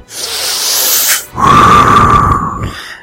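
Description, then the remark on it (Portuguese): A person imitates Darth Vader's labored respirator breathing from the film: a long hissing inhale, a brief pause, then a louder, rasping, buzzy exhale, with no talking. “a melhor fala do filme, foi a respiração do Vader, cara.”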